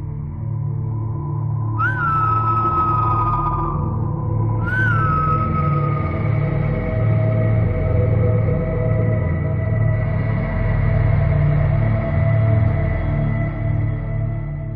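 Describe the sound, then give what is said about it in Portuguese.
Two long, eerie whistles, each sliding gradually downward in pitch, sound a few seconds apart over a steady low droning background, with no voices present, heard while walking up a trail. “Quando de repente, nós começamos a ouvir o assovio.”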